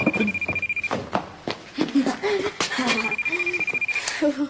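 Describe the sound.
A telephone rings with two long bursts of a steady, high-pitched electronic tone separated by a pause, while voices and clattering sounds continue underneath.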